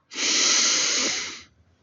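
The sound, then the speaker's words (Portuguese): A single long, steady, deep full inhale drawn up from the belly and in through the nose, a breathy hiss lasting over a second before fading out, with no talking. “Esse momento é um momento onde você faz uma respiração completa, puxando desde aqui da sua barriga, põe a sua mão em cima do seu umbigo e sente essa respiração”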